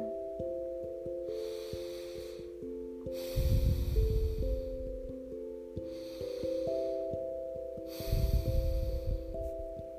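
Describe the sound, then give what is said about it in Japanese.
Slow, loud nasal breaths of a yoga breathing technique, the basic calming breath, swell and recede in a steady cycle, each long rushing exhale mimicking ocean waves washing in and pulling back, over a soft sustained musical drone. “私の好きな何た例えの呼吸法はこの鼻息の呼吸法なんか鼻息荒くて自分大丈夫って恥ずかしがってる人に伝えたいことは分かんない私の鼻息が荒いだけに聞こえてたらごめんけど理想は理想は波の音海の波の音”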